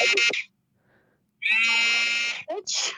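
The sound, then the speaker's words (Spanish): A loud electronic cell phone ringtone or alert sounds in buzzy, harmonic-rich bursts: a short blast, a pause, then a longer sustained tone followed by quick chirping pulses. “Es su celular, es su teléfono.”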